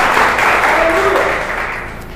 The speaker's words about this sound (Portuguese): Vamos aplaudir a Ele porque Ele merece? Glória a Deus!